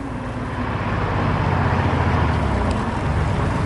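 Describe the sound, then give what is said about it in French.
A car engine rumbles steadily with a low, droning hum, holding fairly loud throughout the few seconds with a slight swell, and no voices. “Quelle est cette voiture Intéressant.”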